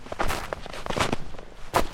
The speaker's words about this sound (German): Schließe deine Augen und höre. Was kannst du hören? Sind es die Geräusche, deine Schritte auf dem Waldboden hinterlassen.